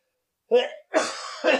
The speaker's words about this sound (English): I have to cough again.